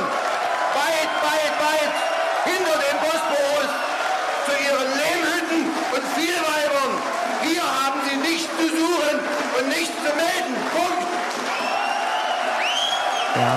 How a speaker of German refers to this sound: also man hört es, da wird im Hintergrund gejubelt. Später wurde dann auch noch sowas wie Abschieben, Abschieben äh, gerufen in dieser sehr aufgeheizten Halle.